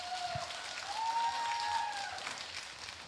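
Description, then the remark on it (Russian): An audience applauds and cheers for a singer, clapping steadily throughout, with a few drawn-out whistles and cheers rising over the dense patter of applause at a moderate, even level. “ваши аплодисменты и крики.”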